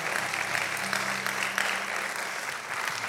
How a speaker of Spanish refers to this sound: Vamos, denle un aplauso fuerte al Señor si usted lo está entendiendo.